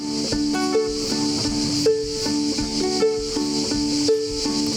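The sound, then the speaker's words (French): A dzenze made of plywood, with four fishing-line strings on each side and salvaged guitar tuning keys, being plucked, its bright string notes cycling through a short repeating melody at a steady pace, with a constant airy hiss underneath and no voices. “Celui-là, on l'appelle le dzenze, et c'est fait donc avec quatre cordes de chaque côté”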